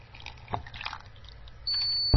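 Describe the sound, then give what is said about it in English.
Liquid trickles and splashes as it is poured into a cup fitted with a liquid-level device, with a few drippy bursts, then the device gives a steady high-pitched electronic beep over the end. No one speaks. “And move it out the way to the back and pour.”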